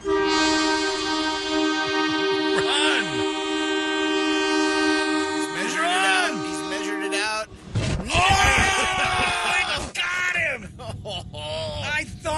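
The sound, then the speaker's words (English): A train horn blares in long sustained blasts as a train bears down on a man taking a selfie in front of it in India, rumbling louder, with excited voices shouting and talking over the roar near the end. “Guy in India taking a selfie in front of a train.”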